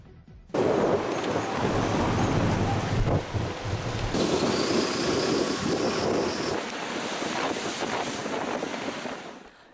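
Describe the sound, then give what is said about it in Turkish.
A powerful southwesterly (lodos) windstorm in western Turkey roars loudly and steadily in gusts, with a dense wash of driving rain and crashing surf beneath it, the noise buffeting the microphone. “Önüne kattığını götüren kuvvetli lodos peşi sıra yağmur getirdi.”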